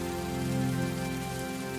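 Raindrops pattering onto a surface in a steady, soft wash, the first drops of a thunderstorm, with a constant low tonal hum underneath and no voices.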